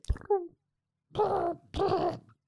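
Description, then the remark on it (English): A person imitates a pigeon's cooing: a brief throaty sound, then two longer warbling, groaning coos in quick succession, with no words spoken. “Can you make that noise?”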